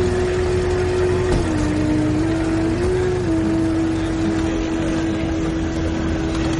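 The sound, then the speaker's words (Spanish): A car engine hums steadily with a droning low tone that dips and rises slightly in pitch, staying at a constant, fairly loud level throughout with no voices, as a car carrying a woman and a small boy drives away from journalists. “Más tarde, Christine sube a un coche con el pequeño y se alejan de los periodistas.”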